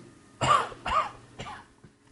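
Three harsh coughs in a row, the first two strong and the last one weaker, with no talking.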